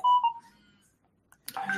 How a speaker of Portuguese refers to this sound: Deixa eu só tirar o som do meu telefone aqui, que ele está perturbando um pouco.